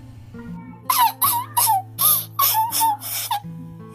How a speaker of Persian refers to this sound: خرگوش کوچولو هم که خیلی گرسنه و منتظر مونده بود یک دفعه از شدت ناراحتی زد زیر گریه و با صدای بلند گریه میکرد